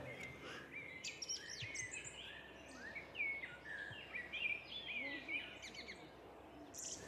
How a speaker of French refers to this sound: Il fait gris, mais pas un gris triste. J'entends des oiseaux. Oui, et le vent.